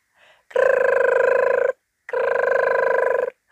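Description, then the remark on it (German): Santa Claus's telephone rings twice, each ring a loud, steady warbling trill lasting just over a second, separated by a short pause, with no voices present; he silences it by pressing a button. “Und der Weihnachtsmann drückte wieder aufs Knöpfchen und das Telefon verstummte wieder.”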